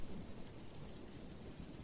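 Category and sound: nature, rain falling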